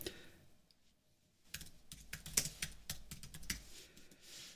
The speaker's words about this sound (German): Ähm, ähm, also mal kleine Texte tippen.